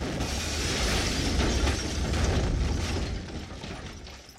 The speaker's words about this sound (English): Okay, he just exited through my wall, and there's a door right there.